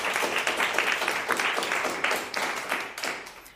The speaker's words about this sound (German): Applaus